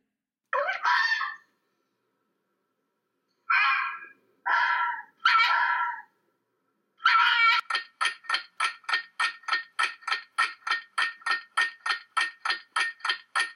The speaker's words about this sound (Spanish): Y la respuesta es... Claro que sí, es el zorro. Y como dato curioso, los zorros son animales que utilizan mucho su sonido para comunicarse entre ellos.